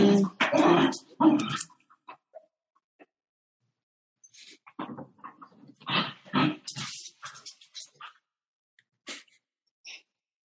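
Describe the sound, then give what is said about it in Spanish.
A dog snorts, huffs and sneezes in a string of short, breathy bursts, with brief pauses between them and a few quieter snuffles near the end. “Mi perro está haciendo ruido. Rita se está poniendo crazy.”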